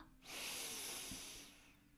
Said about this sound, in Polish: A mi pomaga oddychanie. Nabieram dużo powietrza do nosa